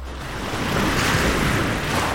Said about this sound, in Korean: 아, 모래사장. 아, 너무 곱다. 아우, 추워, 추워. 아우. 열대 파도 소리라고 해도 바다는 지금 너무 춥다.